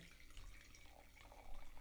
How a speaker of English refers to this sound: And that was her third glass she just poured, ladies and gentlemen. Yeah, like half the bottle's gone now. So uh, this is a very good Syrah.